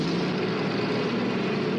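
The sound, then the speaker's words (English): A school bus full of bees runs its engine with a steady, loud, droning rumble that holds even and unbroken throughout, with no voices over it. “Buses can't start when they're full of bees.”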